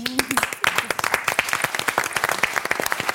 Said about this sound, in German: Und jetzt sind sie bei uns, die beiden Bremer Ermittlerinnen, die neuen. Äh, ich freue mich sehr, dass ihr da seid. Nochmal ein großer Applaus für euch.